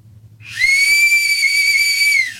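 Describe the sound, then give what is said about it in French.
A single long, shrill blast from a khaki-green army whistle with stars on it, at steady pitch, loud, lasting about two seconds before cutting off, with a faint low hum underneath and no talking. “Attention, c'est un, euh, pour ceux qui le voient pas, c'est un sifflet de l'armée, mesdames et messieurs, vert kaki avec des étoiles d'honneur.”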